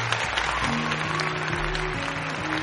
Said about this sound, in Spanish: Así que, señoras y señores, muchas gracias por estar en Bookland. Un aplauso para Gaming Cop, damas y caballeros.